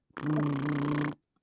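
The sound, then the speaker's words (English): A single steady lip trill lasting about a second, with the lips buzzing and fluttering over a sustained voiced tone before it stops abruptly. “so have you ever heard, you know, that sound that you kind of, you do what's basically lip trills. So it sounds like this.”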